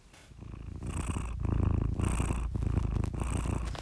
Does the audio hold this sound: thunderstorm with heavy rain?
no